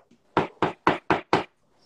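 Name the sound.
knocking on a door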